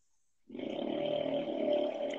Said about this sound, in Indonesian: aduh ini motor berisik banget cok